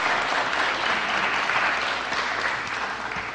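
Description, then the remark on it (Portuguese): Sustained applause from a crowd for the authors at the pre-launch of the book Tesauros Terminológico da Conscienciologia, a dense, steady wash of many hands clapping at a fairly loud, even level throughout, with no talking over it. “então, pessoal, uma salva de palmas aí para todos os autores.”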